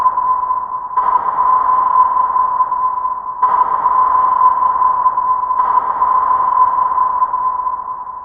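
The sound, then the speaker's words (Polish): German low-frequency Gruppenhorgerat submarine sonar, as installed in Kriegsmarine submarines: a loud, steady electronic tone hums throughout, with three brighter pulses swelling in at roughly two-second intervals. No voices. “Dźwięk niemieckiego sonara niskiej częstotliwości Gruppenhorgerat instalowanego w jednostkach podwodnych Kriegsmarine pozwalał rozpoznać alianckie konwoje na odległość kilkunastu kilometrów.”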